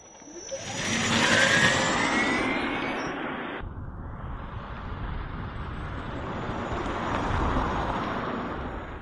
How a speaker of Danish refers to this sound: Og det er altså lyden af da, da, da, en elbil, som starter op og kører. En elbil er rigtig sej, fordi en elbil den kører nemlig på batteri.